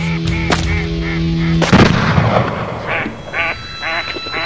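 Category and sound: impact, shotgun blasts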